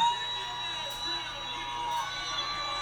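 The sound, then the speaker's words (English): A crowd at a live performance cheers and shouts in a steady, dense roar that holds for about three seconds, with indistinct voices and a few thin high tones mixed in. “Of course, you guys hear the crowd in the background”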